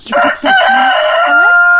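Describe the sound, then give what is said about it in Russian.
A rooster crows loudly in a chicken coop, a single long strained cock-a-doodle-doo with a few choppy opening notes and a sustained, wavering tail. “Но самым забавным для нас оказалось посещение курятника. Оказывается, и у петухов бывают свои характеры.”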